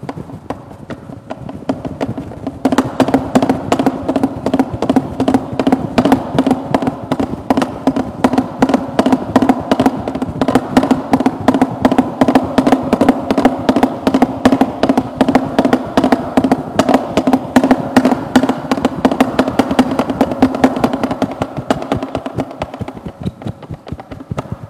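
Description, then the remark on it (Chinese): Three foley artists perform live on stage, imitating a thundering herd of galloping cavalry horses as done for film sound: loud, dense, rapid hoofbeat thumps and clatter in a steady driving rhythm, building after a short quieter opening and continuing without talk. “我们三个人上场就可以做一个千军万马。”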